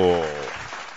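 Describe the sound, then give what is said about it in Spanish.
A short burst of applause given to the audience: a sustained tonal hum fades in the first half second, then a dense patter of clapping continues at a steady, moderate level. “Bienvenidos, les doy el aplauso a ustedes, bonito.”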